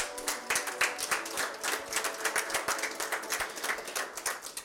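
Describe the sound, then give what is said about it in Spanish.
After a prayer, an audience bursts into sustained applause for God, many hands clapping in a dense, crackling wash of sharp claps that holds steady at moderate loudness for several seconds, with no voices. “Damos un aplauso a nuestro Dios.”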